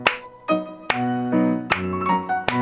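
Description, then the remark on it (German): A handful of sharp hand claps in a steady rhythm at a pleasant volume, clapped as a pattern for the listener to clap back, sounding over a bed of sustained musical tones; no one speaks. “Nimm mal deine Arme und Hände nach vorne, ich klatsch dir etwas vor und du versuchst es nachzuklatschen.”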